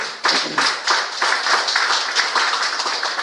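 A church audience gives an offering of applause to God, a dense wash of many hands clapping steadily and loudly for a few seconds, with no voices rising above it.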